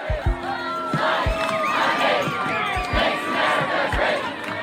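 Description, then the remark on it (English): A large crowd marching in defense of science cheers and shouts together in a dense, sustained roar, with individual yells rising above the mass of voices and a few low thumps underneath. “Enormous crowds marched across the country in defense of science.”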